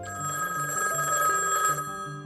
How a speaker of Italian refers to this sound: il telefono non smette mai di squillare. Ed è così per giorni.